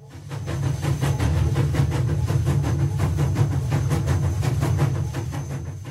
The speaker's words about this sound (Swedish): Och du ska följa med mig och vi ska åka till tågstationen på Fifth Street i Mason, Georgia. Det var där de var nämligen. Så åkte okay, de dit ja. och så kommer tåget